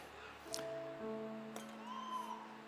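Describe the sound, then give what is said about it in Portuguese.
Two sharp scratchy clicks about a second apart, a lighter's flint wheel being struck to light it, over soft sustained background music with no talking. “Esse isqueiro, esse isqueiro acende.”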